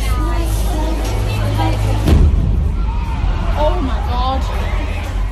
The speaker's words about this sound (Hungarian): Nem sokkal később öngyilkos merénylő azonban megölt 22 embert közöttük 7 gyermeket. Itt hallják a robbanást.